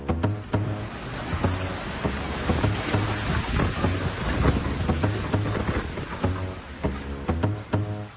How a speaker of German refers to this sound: Es hat gestürmt im Jura